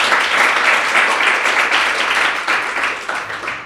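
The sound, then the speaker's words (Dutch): An audience in a hall breaks into steady, dense applause, many hands clapping loudly together for a few seconds before it begins to thin out slightly at the end. “Mag ik even een applaus voor Bastiaan, jongens?”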